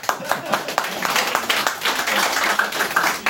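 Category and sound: crowd, audience applause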